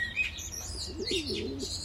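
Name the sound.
garden birds chirping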